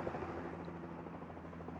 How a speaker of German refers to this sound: Also hier fliegen immer die Hubschrauber quer.